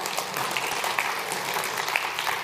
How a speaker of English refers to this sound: go ahead, you can clap to that.